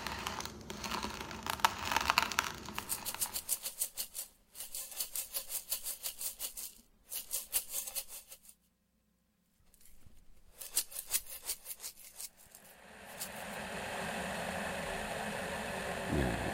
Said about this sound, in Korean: 뭔가 드르륵 드르륵 하는 소리가 들리는데. 네, 지금쯤 아마 감이 오셨을 거예요. 커피콩 원두를 갈고 있습니다.